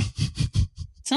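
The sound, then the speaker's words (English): A voice imitates the raspy, zombie-like hissing of scarecrows in a quick series of breathy bursts, about four strong pulses that trail into fainter ones, fairly loud. “Uh, the other scarecrows all start hissing.”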